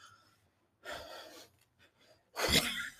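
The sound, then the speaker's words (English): A voice imitates a woman's heavy, excited breathing: two loud, breathy bursts, a longer panting one and then a sharper gasp-like exhale after a short pause, with no words spoken. “she breathing so hard, this paper moving on the thing.”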